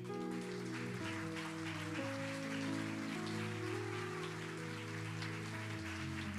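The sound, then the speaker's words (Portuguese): An audience applauds in a dense, steady wash of clapping that holds for several seconds, with sustained keyboard chords playing underneath and no voices. “Dê um aplauso ao seu irmão.”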